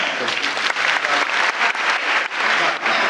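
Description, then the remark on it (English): An audience applauds steadily for a few seconds, a dense, even wash of many hands clapping with no pauses, fairly loud throughout; the applause comes from those who have not seen the film The Kid Brother before. “Or how many people haven't seen The Kid Brother before? Just by, by applause.”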